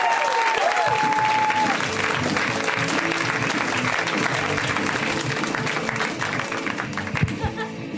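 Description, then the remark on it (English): Loud, steady applause from a large audience in Los Angeles welcoming comedian Moses Storm fills the entire clip, dense and unbroken, with a brief high whistle cutting through near the start. “Give it up for Moses.”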